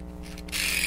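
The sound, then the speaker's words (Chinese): A metal clockwork toy mouse being wound with its key, a brief mechanical ratcheting whir that grows louder and brighter partway through. No voices. “我上一下发条啊，大家听听这个声音，你看，”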